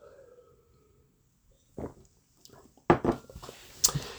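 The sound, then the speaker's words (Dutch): Someone takes a sip of water: a soft clink or handling noise, a brief pause, then a few quiet gulps and swallowing sounds, with no talking. “oh, ik moet alweer, ja, dat krijg ik, lang praat, moet ik even een slokje water.”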